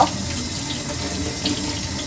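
tap water running

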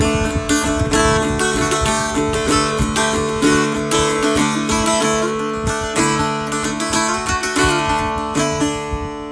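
irish bouzouki being played

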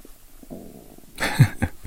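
stomach rumbling

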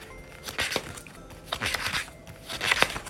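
turning book pages

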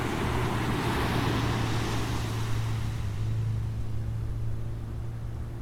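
ocean waves

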